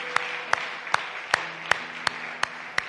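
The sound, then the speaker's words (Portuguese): A standing church audience applauds Christ, clapping in steady unison, eight sharp beats at an even brisk tempo over a soft wash of scattered applause, moderately loud with no voices. “E uma vez que estão de pé, dê um aplauso a Cristo uma vez mais, porque Ele hace todo por todos nós outros.”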